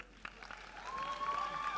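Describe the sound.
A church audience applauds with steady, diffuse clapping to cheer on a young woman coming up to recite a poem, along with a few sharper claps, a thin sustained tone, and faint voices mixed in.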